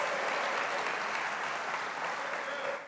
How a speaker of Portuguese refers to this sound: só quem recebe, levanta as mãos e aplauda o Senhor. Diga aleluia, diga glória a Deus.